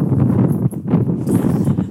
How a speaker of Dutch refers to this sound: Ik realiseer me dat je heel veel wind op de achtergrond hoort.